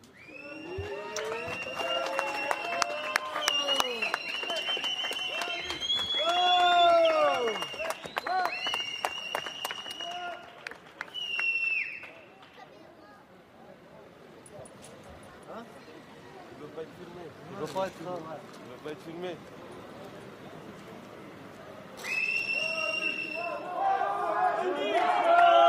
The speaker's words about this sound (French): Je voudrais que vous voyez d'abord cette séquence où le papa de la petite fille sort du commissariat, applaudi, acclamé par les gens qui sont autour.